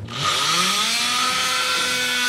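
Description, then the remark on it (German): A surgical bone saw whirs to life, its motor pitch climbing quickly, then holds a loud, steady, high-pitched buzzing whine for a couple of seconds, with no voices. “Säge. Säge.”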